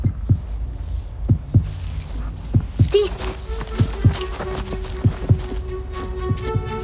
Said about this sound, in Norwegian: Selma hører fortsatt hjerteslagene som hjelper dem å finne retningen.